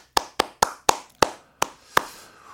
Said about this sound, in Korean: 박수 한번 주시고요.